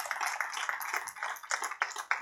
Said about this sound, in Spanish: Dar un aplauso Señor en esta, en esta mañana.